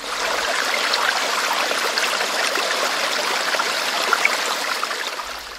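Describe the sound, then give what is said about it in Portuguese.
Steady rushing of flowing water, like a large river, fills the scene with a constant broad hiss and gurgle, even in loudness throughout, with no voices. “mas aqui na mesma hora surgiu uma imagem na minha mente. Um rio bem grande, assim, as águas correndo, passando pelas pedras.”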